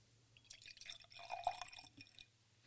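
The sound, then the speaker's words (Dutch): Whisky trickles and splashes into a glass in a short pour, with bright clinking and gurgling textures rising and then tapering off. No voices are heard. “En dan dat geluid als hij dan zo een glas indaalt.”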